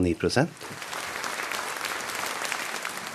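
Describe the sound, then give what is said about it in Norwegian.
A theatre audience at the Nationaltheatret gives a standing ovation after a performance of Per Gynt, a dense wash of clapping that stays even and sustained, following a brief moment of a voice at the start. “Siden premieren i august har han rukket å bli bortskjemt med stående applaus.”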